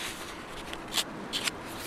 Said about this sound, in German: Riera blättert in einer Broschüre, die er und andere Fachleute erstellt haben.